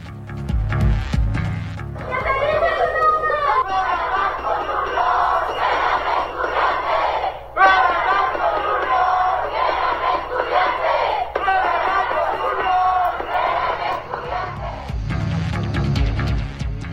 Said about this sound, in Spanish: Los estudiantes fueron acompañados por autoridades de la universidad y familiares de las víctimas. Escuchemos parte de las protestas.